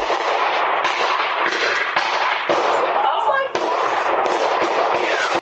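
A string of sharp gunshots, roughly half a second to a second apart, recorded at night by a Ring doorbell camera during a shooting outside a nightclub in January, buried in a harsh, hissy outdoor recording with a constant wash of noise between the shots.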